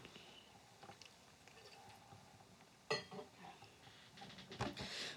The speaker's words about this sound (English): I'm just gonna have a sip and my tea real quick.